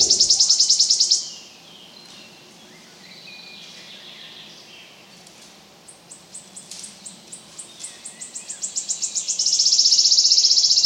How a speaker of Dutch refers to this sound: Fluiter is toch ook een soort die heel dun gezaaid is in Vlaanderen. In Wallonië zit hij iets meer. Je hebt zo wat oude loofbossen nodig met niet te veel ondergroei. En hier in Averwoudenbos en hij zit hij soms, ook niet elk jaar.